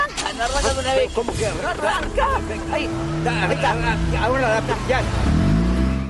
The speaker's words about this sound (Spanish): En el auto de Elsa, al que cuesta poner en marcha.